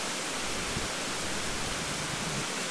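A steady, dense hiss of heavy rain pours down without pause in the Amazon rainforest, an even wash of noise with no distinct drops standing out and no voices present.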